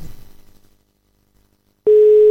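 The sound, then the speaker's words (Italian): A telephone ringing tone on a call cuts in abruptly after a near-silent pause, a loud, steady electronic note that holds until the end. No one speaks. “No, no, no, no, stava ancora squillando, stava ancora squillando.”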